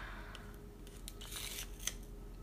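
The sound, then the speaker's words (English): Soft pencil scratching on paper while writing an essay, a few short scratchy strokes with a longer rasping stretch in the middle, quiet against a low steady background hum. “oh, listen to the sound of the pencil.”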